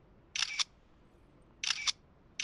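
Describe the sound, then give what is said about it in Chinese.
Camera shutter clicks from selfie photos being snapped at a bus stop sign while waiting for a bus: two crisp, bright double-clicks about a second apart, with a third just starting as it ends, over faint background hiss and no talking. “哎，对了，来几张自拍照发给他，证明。”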